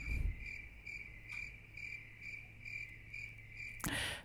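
Crickets chirp steadily in a continuous high-pitched trill with regular pulsing bursts, fairly faint and alone, with a low hum underneath and a brief noisy thump near the end.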